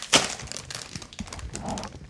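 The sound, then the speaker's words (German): Crinkling of a small 110-gram chip bag being opened, starting with a sharp tearing crackle and followed by a steady stream of rustling, crackly plastic sounds with no voices. “So, jetzt machen wir Lukas Paprikano auf.”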